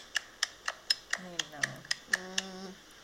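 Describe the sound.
A rapid, steady series of about eleven crisp light-switch clicks, evenly spaced, with a voice sounding briefly underneath partway through.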